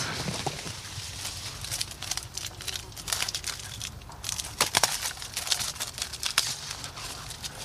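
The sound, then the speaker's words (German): A white paper strip with ink on it crinkles and rustles in irregular bursts as it is pulled out of a homemade tunnel on a garden table, with sharper crackles standing out, moderately loud against a faint outdoor background; no one speaks. “legt es hier mal auf den Gartentisch, den selbstgebauten Tunnel und zieht das weiße Papier raus.”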